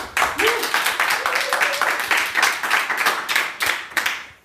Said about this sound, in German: Ich bin hier gerade auf der Contentix in Berlin. Vor mir sitzen eine Handvoll sehr interessierte, motivierte Menschen, die sich mit einem kurzen Applaus äh, mal kurz zeigen dürfen.